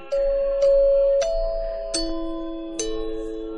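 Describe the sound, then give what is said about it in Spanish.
Five bright xylophone notes struck one after another at an unhurried pace, each ringing out and lingering into the next, forming a short, gentle melody played as a farewell sign-off, with no talking. “y te quieres despedir otra vez con el gilófono.”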